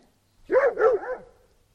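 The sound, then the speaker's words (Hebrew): A dog barks twice in quick succession, fairly loud, the second bark trailing off into a brief softer whine, with silence around it. “הנה קול כלב.”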